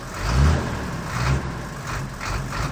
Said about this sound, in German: Wenn zum Beispiel auf der Autobahn ein feindliches Auto so voll mit Lichthupe angeprescht kommt